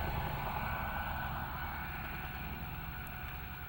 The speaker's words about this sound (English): But the power goes out, and you hear a helicopter coming overhead and hovering.